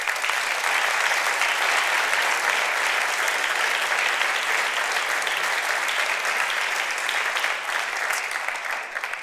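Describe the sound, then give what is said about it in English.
Sustained audience applause for the board of directors, dense and steady clapping from a sizable crowd that stays loud throughout and thins slightly at the very end. “Maybe you give them a round of applause.”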